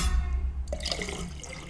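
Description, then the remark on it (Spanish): Water pours into a glass, a steady splashing trickle that starts partway through and continues to the end, with no voices present. “Estoy sirviendo agua a ustedes.”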